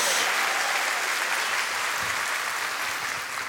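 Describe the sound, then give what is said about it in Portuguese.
Sustained applause from an audience giving a round of applause to the Lord, a dense wash of many hands clapping at steady loudness for several seconds, tapering slightly at the end. “Pode dar uma salva de palmas ao Senhor, meu irmão.”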